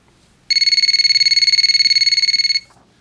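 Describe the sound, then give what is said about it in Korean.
A telephone rings with a rapid electronic trill, one continuous burst of about two seconds, loud, then stops; it is an incoming call from a man. No one speaks. “그러던 어느 날 그 남자에게 전화가 왔습니다.”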